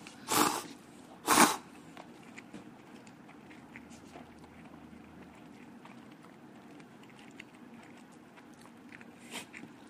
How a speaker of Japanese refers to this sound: このさ噛んでる音ってさどうなんやろな気持ち悪ないんかなえでもちょっと聞こえづらいからいつもよりくちゃくちゃ食うべきやで、俺でも結構くちゃくちゃなってるって言われんねん